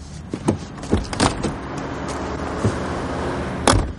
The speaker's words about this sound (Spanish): Suben al coche.